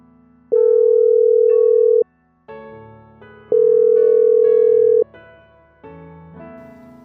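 An outgoing call's ringback tone sounds twice, each a steady tone lasting about a second and a half, separated by a pause, with soft music playing underneath throughout, as a woman phones another woman.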